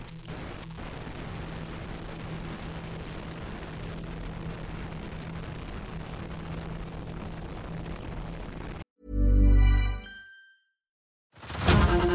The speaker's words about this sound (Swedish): Jag öppnade min mun och skrek, men det enda ljud som kom ut ur min mun var ett statiskt brus.